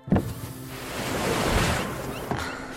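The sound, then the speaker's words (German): Sea waves crash against rocks with a sharp splash at the start, then a broad, swelling roar of surf that builds and recedes before another splash near the end. No voices. “Und wie die Wellen an die Felsen klatschen.”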